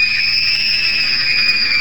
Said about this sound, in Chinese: 门外传来了女人最后的一声惨叫。